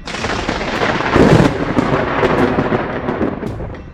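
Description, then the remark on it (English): A loud crack of thunder bursts out and swells into a heavy, crackling roar, rumbling on steadily without fading for several seconds, with no voices, as an immense bolt of lightning hits a mechanical drone. “sending an immense bolt of lightning at the drone, hitting dead on, but without a scratch.”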